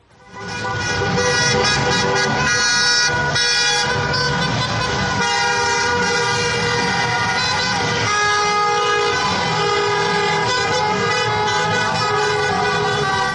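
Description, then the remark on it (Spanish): A morning street protest in Madrid of loud, nonstop car and truck horns blaring together, overlapping tones sounding for the whole stretch with no pauses and no clear voices. “lo que tiene claro la gente de Santiago es que están hasta el gorro y así lo han demostrado en la mañana de ayer”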